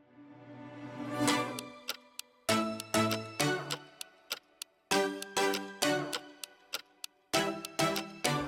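A short instrumental intro jingle of Allo Copine: bright, bell-like tones over a steady ticking, clock-like rhythm, swelling at the start and then playing in crisp repeated bursts, with no one talking over it.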